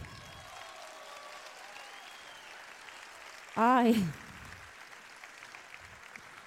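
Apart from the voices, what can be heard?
audience applause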